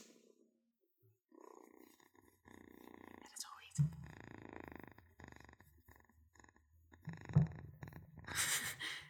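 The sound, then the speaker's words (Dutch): Muffled bumps and scuffing as a female cat, held up to the microphone, paws at it, with two heavier thuds and soft rustling in between, no talking. “nou, hij vangt letterlijk niks op, behalve dat ze tegen, met de pootjes tegen de nou. aangaat.”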